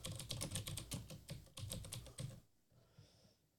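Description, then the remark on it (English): Rapid, clacky keystrokes from an old-fashioned mechanical computer keyboard that sounds like a typewriter, sharp, typed in quick bursts for a couple of seconds before stopping, with no voices. “I have this old-fashioned keyboard that sounds like a um, uh, a typewriter, which I love.”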